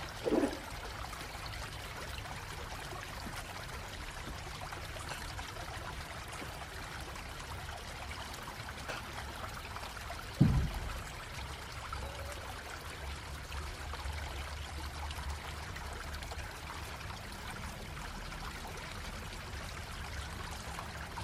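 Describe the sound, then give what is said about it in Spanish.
A steady, continuous rush of flowing river water fills the scene, even and moderately loud, with a couple of brief low thumps breaking through near the start and midway. “Dedícate a disfrutar del río y su entorno.”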